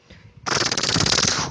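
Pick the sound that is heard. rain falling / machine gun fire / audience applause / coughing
machine gun fire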